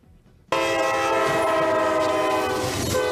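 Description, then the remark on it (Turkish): A loud train horn blares suddenly and holds steady over the roar of a fast-approaching train about to hit a minibus in snowy weather in Pamukkale, Denizli, Turkey, overwhelming, with no talking. “Hızla gelen trenin çarptığı minibüsten atladılar, saniyelerle hayatta kaldılar.”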